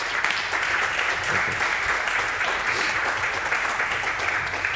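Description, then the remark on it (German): Sustained audience applause for three guests at the Campfire event, a dense, steady wash of many hands clapping at an even loudness for several seconds, with no voices rising above it. “Deswegen herzlichen Applaus, hoffentlich mit Ihrer Unterstützung an unsere drei Gäste.”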